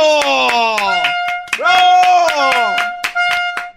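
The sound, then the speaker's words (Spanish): Hand clapping, about ten sharp claps in a steady rhythm, sounding loudly alongside a sustained, wordless voice whose pitch slides down and up throughout. “Maestro, bueno, permítame aplaudirle por hacerlo.”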